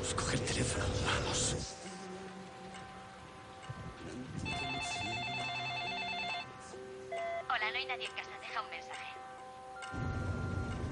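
telephone ringing

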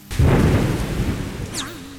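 heavy rainstorm

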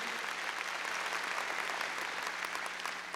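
audience clapping loudly

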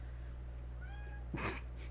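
cat meowing

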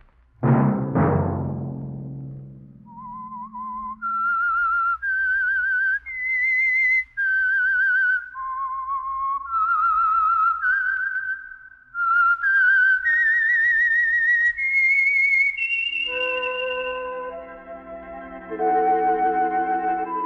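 whistled theme melody

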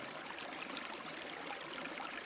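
flowing river water

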